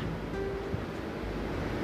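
A continuous, rough rush of sea surf churned by strong wind in front of the sea, a steady roar filling the background with no distinct breaks and no voices.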